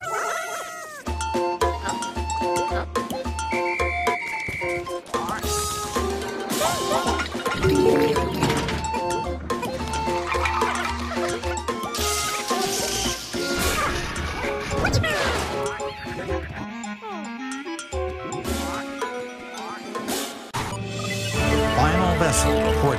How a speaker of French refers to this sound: On va s'écouter un petit trailer, c'est parti.